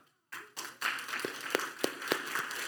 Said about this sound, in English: Our goal is 150. And all of a sudden, the applause stopped.